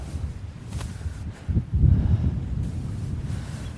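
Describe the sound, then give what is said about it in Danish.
Sea waves surge and wash, a low churning rumble that swells midway, mixed with heavy wind buffeting the microphone, while people cast fishing lines from the shore in cold winter weather. No one speaks. “Åh, nogle bølger, mand.”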